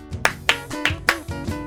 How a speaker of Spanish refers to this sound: Estoy aplaudiendo muy mal pido aplausos grabados en instantes ¿eh?